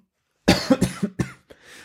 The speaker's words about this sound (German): Da hustet man gleich.